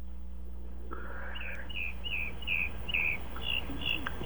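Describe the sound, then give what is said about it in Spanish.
Small birds chirp in a quick, steady series of bright, high tweets, repeating about eight times over a low background hum, fairly clear with no one speaking. “Sí, ya oí los pajaritos, ahora faltas tú.”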